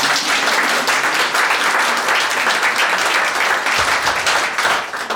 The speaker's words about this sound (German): Hallo und herzlich willkommen auch von mir. Ihr dürft gerne klatschen.